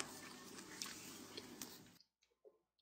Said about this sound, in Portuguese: Mastigando um pão vegano, uma pizza Bora. vegana. Né?